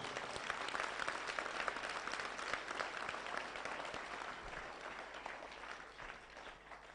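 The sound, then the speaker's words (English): A crowd of people claps their hands for Jesus in sustained, dense applause lasting several seconds, steady, slowly tapering slightly toward the end with no talking over it. “Clap your hands for Jesus if you can.”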